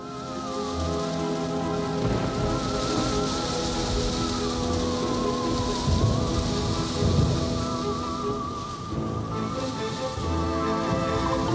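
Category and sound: nature, rain falling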